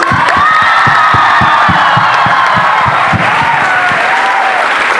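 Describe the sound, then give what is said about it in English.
A large crowd of SSVM students claps loudly and steadily for guest of honor Mr. Madhavan, with a dense patter of hands under high, sustained cheering and whooping voices throughout. “I want you guys to uh, welcome this gesture with another huge round of applause.”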